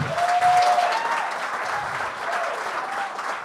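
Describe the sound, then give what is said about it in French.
Sustained audience applause for a performer at a comedy show, a dense steady patter of many hands clapping for several seconds, with a brief whistle near the start and no one speaking over it. “Euh, OK, ben on peut, on peut l'applaudir ah vraiment.”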